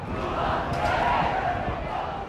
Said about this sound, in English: Um, and of course, this morning we had President Inacio Lula da Silva, who also came by to pay his respects. When he came out, the crowd went wild, erupted in cheers both for Pelé and for Lula.